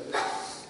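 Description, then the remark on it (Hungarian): A single sharp sneeze: a sudden breathy burst that quickly fades into a soft hiss, with no talking around it. “egészségedre.”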